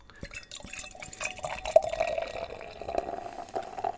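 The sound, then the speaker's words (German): Herzog Jan alcohol-free 0.0 beer pours steadily into a glass, a bubbling, trickling stream with small splashes and fizzing that runs continuously for several seconds, with no talking. “Ja, also es fließt auf jeden Fall schon mal schön ins Glas, hat eine wunderbare goldene Farbe, also das auf jeden Fall auch sehr einladend.”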